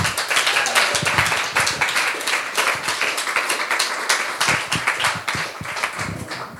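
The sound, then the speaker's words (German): Sustained, warm welcoming applause from an audience for a preacher about to give a sermon, dense overlapping hand claps at a steady, fairly loud level for several seconds, with no one speaking over it. “Wir heißen dich mit einem warmen Applaus willkommen.”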